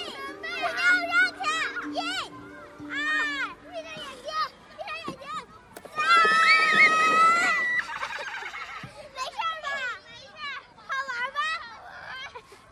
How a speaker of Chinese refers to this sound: 学校的操场旁边有大片凹下去的洼地，我到的时候正好是午饭之后，几个孩子找了块塑料板，在洼地旁边的坡道上玩滑沙。